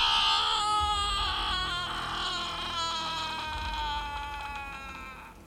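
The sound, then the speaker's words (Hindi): A loud, piercing scream echoing through a haveli (mansion) during heavy rain and lightning, just after the door shuts by itself: one long, high, wavering wail that starts at full strength and slowly fades over several seconds, with no talking. “लेकिन उसके अंदर जाते ही दरवाज़ा अपने आप बंद हो गया और एक ज़ोरदार चीख हवेली में गूंज गई”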